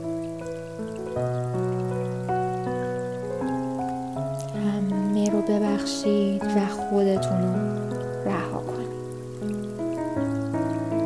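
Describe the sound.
Gentle rain patters steadily beneath slow, sustained piano chords for a relaxing meditation, with a calm voice speaking softly in Persian over the mix throughout.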